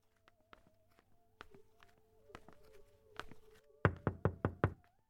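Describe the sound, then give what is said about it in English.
Soft, scattered, tentative taps on the front door of a house with wide front steps give way to a quick run of five firm, evenly spaced knocks, clear over a faint steady hum. “Feeling overwhelmed and underdressed, I tapped the front door tentatively.”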